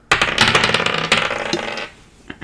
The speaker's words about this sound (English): All right, guys, everyone pick up your dice and let's roll for initiative.